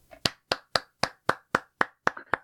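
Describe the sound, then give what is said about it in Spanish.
Steady, rhythmic hand clapping, about nine crisp claps at an even pace, sounding like one person applauding, with no voices. “Un aplauso al Pita.”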